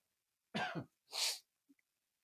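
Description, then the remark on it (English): A single forceful sneeze: a short voiced intake and then a sharp, hissy burst, followed by silence and a faint click. “All right, I'll put a dollar in the bucket for sneezing on air.”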